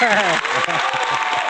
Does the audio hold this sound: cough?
no